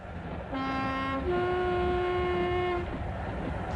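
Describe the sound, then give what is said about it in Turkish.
A train rumbles steadily along the tracks while its horn sounds one long, two-toned blast that rises slightly in pitch partway through, then fades back into the rolling noise. “Trendeyiz nereye kaçabilirim?”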